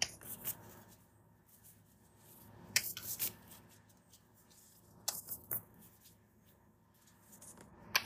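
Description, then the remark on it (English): A deck of cards being shuffled, with soft papery riffles and sharper bursts of card flutter recurring every couple of seconds, fairly quiet overall with no talking. “y'all hear me shuffling?”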